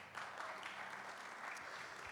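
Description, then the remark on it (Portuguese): A crowd claps steadily, a dense wash of many hands with no clear individual beats, holding at an even, fairly loud level throughout. “Pode dar uma salva de palmas para ela?”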